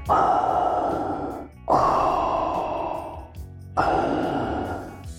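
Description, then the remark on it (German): Three long, heavy mechanical breaths in a slow steady rhythm, a recreated Darth Vader breathing effect from Star Wars, equalized to remove highs and pitched down three semitones, muffled as if through a respirator mask, loud with no talking. “Um jetzt dieses typische Atmen noch ein bisschen anzupassen, verwenden wir einen Equalizer und entfernen einige Höhen.”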